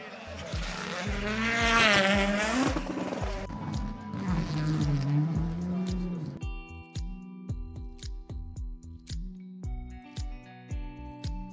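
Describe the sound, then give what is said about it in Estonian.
Loud rally car engines roar and rev during a rally at Leigo lakes, a concert venue, their pitch sweeping up and down, then settle into a throbbing, pulsing growl as the cars idle or pass. “täna on siin kuulda aga rokki ehk et ralliautode kõva põrinat, mis on ju ometigi muusika rallisõbra kõrvadele”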